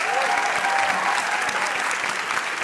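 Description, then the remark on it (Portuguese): An audience applauds journalist Gerson Camarote, a guest invited to talk about Ariano Suassuna, breaking into steady, sustained applause, a dense wash of clapping that stays loud and even throughout, with no voices standing out above it. “Para falar do imenso artista, vamos pelo caminho do afeto conversar com três amigos do Ariano: o jornalista Gerson Camarote, aplaudam, o diretor Guel Arraes e o ator Luiz Carlos Vasconcelos”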